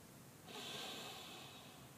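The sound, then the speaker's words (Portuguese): A slow, deep breath drawn in through the nose during a guided breathing exercise, a steady airy hiss that swells after a brief pause and holds for over a second, soft, with no talking. “Eu vou realizar essa primeira contando alto. Inspirando”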